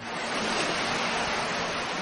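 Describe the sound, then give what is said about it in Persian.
Steady, full-bodied rushing of sea waves reaching and washing onto a shore, a continuous hissing roar with no distinct breaks between waves. Moderately loud, with no voices. “در حقیقت بیشتر صداهایی که ما از اونها همیشه به عنوان صدای دریا یاد میکنیم صدای امواج دریا هستند که به ساحل میرسن و ایجاد صدا میکنن این صدا در درجه اول کاملا وابسته به آروم یا طوفانی بودن دریاست”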